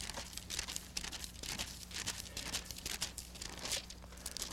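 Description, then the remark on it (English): A steady, crinkly rustle of paper Bible pages being turned to Psalms chapter 51 during a sermon, soft and continuous, like many thin pages flipping at once, with a low hum beneath. “I know some of you are not hearing pages turned because they don't use the paper Bible, they use the electronic Bibles now.”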